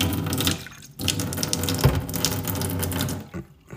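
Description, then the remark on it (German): Water, about 0.2 litres, pours steadily into a glass, a continuous bright splashing stream with a couple of brief breaks, fairly loud and with no voices. “So, wieder 0,2 Wasser?”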